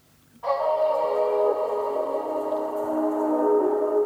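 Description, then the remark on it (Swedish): After a brief quiet moment, a moody R&B music sample, played as it was originally received before being reworked for a song, swells in abruptly with lush, sustained chords that hold steadily and fairly loud to the end, with no voices. “Så på introt, ja jag kommer, men jag spelar först upp hur den lät när jag fick den så att säga.”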